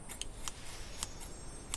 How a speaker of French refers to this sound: Elle prit entre ses doigts une paire de ciseaux et se mit à couper les tissus d'un geste franc.